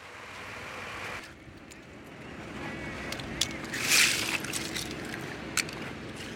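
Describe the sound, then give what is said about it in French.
Clam fishing boats return to the port of Scardovari in the Po delta, Italy, idling and churning with a steady low engine rumble mixed with sloshing water and wind, while a brief high bird-like call rings out midway. No one speaks. “Les bateaux de Palourde rentrent au port de Scardovari.”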